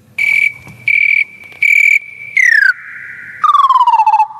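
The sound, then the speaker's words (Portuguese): A shrill, buzzy cricket chirp repeats in four quick bursts over a steady high tone, then slides downward in pitch, loud with no talking. “Faz hoje 20 anos que aconteceu forte tragédia, comentada pelo nosso comentador oficial de tragédias, que é o Grilo.”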